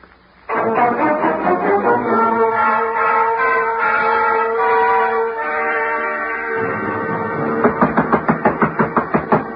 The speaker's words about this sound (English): I do believe Mr. Dillard is going up the stairs after Julie. He's taking his walking cane